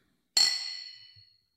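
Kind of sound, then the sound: household object, drinks clinking together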